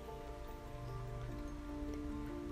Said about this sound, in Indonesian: Hujan telah datang sesuai sunatullahnya.